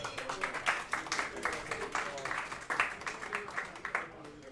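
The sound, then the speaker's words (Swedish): An audience at a quiz claps to thank the person who made the quiz, in a dense, steady burst of applause lasting a few seconds, then it quickly thins out and fades near the end. “Kan en applåd honom.”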